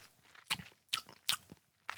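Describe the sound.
Quiet wet lip smacks and mouth clicks, four short crunchy bursts spaced about half a second apart, with no one talking.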